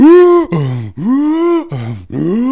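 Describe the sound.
A voice loudly imitates heavy, exhausted breathing after swimming 75 meters straight in a 25-meter gym lap pool: about five strained, groaning breaths in quick succession, alternating higher and lower pitches, with no other sounds.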